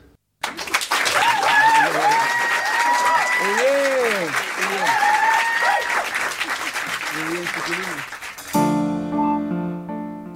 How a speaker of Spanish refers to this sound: todos, todos los aplausos.